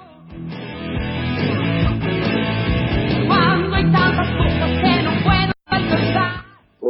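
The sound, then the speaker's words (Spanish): A loud, dense rock song plays steadily with full band instrumentation, cutting out abruptly for a split second near the end before resuming. “De la que no te vas a olvidar es de esta que yo te voy a contar ahora”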